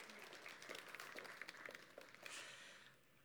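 A room full of people breaks into steady applause, a dense patter of many hands clapping at moderate volume for a few seconds before it tapers off.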